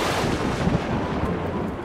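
thunder sound effect

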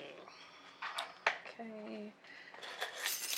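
keys jingling

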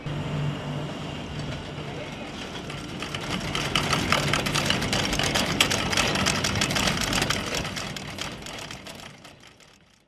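bus engine running

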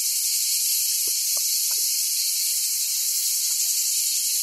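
cicadas singing

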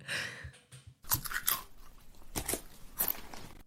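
crunching chips

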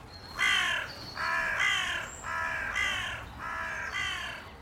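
carrion crows cawing

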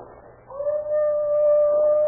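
dog howling

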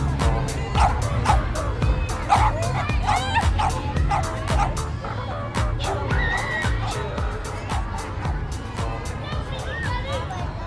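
dog barking

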